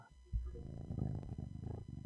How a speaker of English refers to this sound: Yeah, because like, can you hear the cat purring through the headphones at all? No.